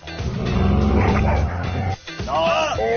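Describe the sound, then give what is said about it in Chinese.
A dog barks loudly and repeatedly for about two seconds, then after a brief pause lets out higher, yelping barks. It is a dog being trained by lead actor Chen Yi on the set of the film 营救汪星人 (Rescuing the Dog Star). “乐翻天独家探班电影《营救汪星人》，男主角陈毅训狗，反遭狗咬。”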